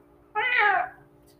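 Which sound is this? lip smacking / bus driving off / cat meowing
cat meowing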